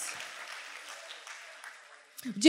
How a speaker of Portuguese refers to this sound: Aleluias. Pode aplaudir o Senhor. Aleluias.